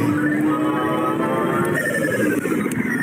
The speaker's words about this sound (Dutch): Een soort casino. U heeft de jackpot gewonnen.